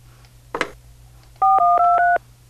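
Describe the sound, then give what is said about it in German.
A brief clatter, then four quick touch-tone beeps in a row as a phone number is punched in to order food for delivery, fairly loud, over a faint steady hum. “Wo ist denn hier Ihr Telefon?”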